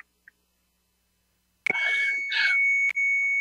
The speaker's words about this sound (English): Oh well, there's an alarm that went off in my building, so I apologize for that. It's they're taking care of that right now.